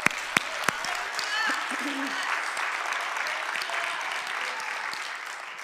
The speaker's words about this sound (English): Let's give God a great big hand clap.